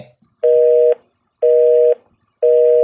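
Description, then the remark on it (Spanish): A telephone busy tone after a call is hung up: three loud, steady beeps of about half a second each, evenly spaced about a second apart, with no talking. “Colgar el teléfono. Eso es lo que tienes que hacer.”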